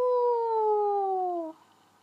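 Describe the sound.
A person imitates a wolf howl with one sustained, steady vocal tone that slides gently downward in pitch for about a second and a half, then cuts off into near silence.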